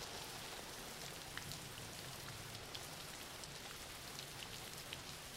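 Steady rain falls on a hard surface, a dense, even patter with occasional sharper drops standing out, continuous throughout, with no voices.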